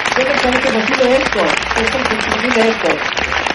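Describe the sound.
A crowd claps steadily and densely for several seconds, a loud, sustained wash of applause with voices rising over it.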